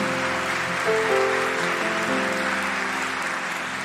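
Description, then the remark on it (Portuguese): Steady applause from a crowd clapping for the Lord, a dense, even patter of clapping lasting several seconds, with sustained keyboard chords playing underneath and shifting pitch partway through. “Se é para aplaudir, aplaude ao Senhor bem forte.”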